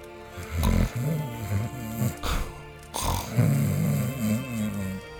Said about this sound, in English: … was snoring.